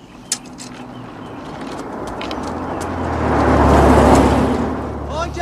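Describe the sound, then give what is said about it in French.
A car drives past, its engine noise swelling to a peak around the middle and then fading, with a sharp click near the start and some faint background chatter. “Voiture”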